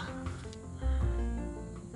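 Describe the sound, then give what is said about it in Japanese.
Ocean waves wash onto the beach at Nachi, Japan, in a soft, continuous rush, with a deeper surge swelling partway through as water rolls in. Fairly quiet, with no voices. “波の音聞こえてるかな波の音聞こえてます”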